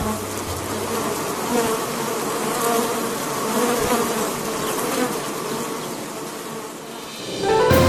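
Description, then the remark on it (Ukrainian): Honeybees buzz steadily around an apiary, a dense, continuous drone of many insects, with no one speaking. “З'явились перші бджолині пасіки.”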